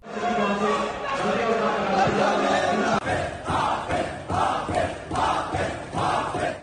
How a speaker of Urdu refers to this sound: کراچی میں city council کا پہلا اجلاس ہنگامہ آرائی کی نظر ہو گیا حافظ نعیم الرحمان نے ایوان میں نعرے لگوا دیے P T I forward block کے پارلیمانی لیڈر کی تقریر کے دوران بھی عوان میں شدید نعرے بازی اور شور شرابہ کیا گیا